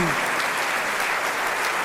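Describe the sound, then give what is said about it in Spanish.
Steady, dense applause from an audience welcoming boys and girls who have made their first communion, a continuous wash of many hands clapping at an even, fairly loud level for the whole stretch, with no voices standing out. “A ver, pásenle, vamos a recibirlos con un fuerte aplauso estos chicos y chicas.”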